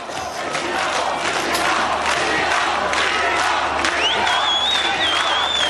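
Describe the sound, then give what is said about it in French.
A dense crowd at the Socialist Party headquarters on rue de Solferino roars and cheers continuously and loudly, celebrating François Mitterrand's election as President of the Republic, with shouts rising out of the din and a shrill whistle cutting through near the end. “Comme vous pouvez le voir autour de moi, c'est une véritable explosion de joie. Il y a tellement de monde ici que je n'ai plus de retour image et que j'ai à peine un retour son.”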